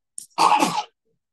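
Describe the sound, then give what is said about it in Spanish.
A single loud sneeze: a quick sharp intake, then one explosive, breathy burst lasting about half a second, followed by silence. “Salud.”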